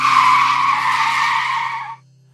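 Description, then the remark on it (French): A loud, sustained screech of tires skidding as a bus brakes suddenly, holding steady for about two seconds before cutting off abruptly, with a low engine hum underneath. “Le nuage au bus freine d'un coup, manquant de nous faire tomber.”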